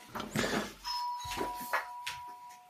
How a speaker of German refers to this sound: Bei Schröders hat's geklingelt